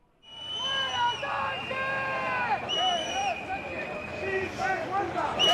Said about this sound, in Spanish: día de enaltecimiento de la hispanidad, más de 4.000 soldados han desfilado ante Felipe VI y las principales autoridades del Estado, pero un año más todo el protagonismo ha ido para los abucheos que ha recibido Pedro Sánchez.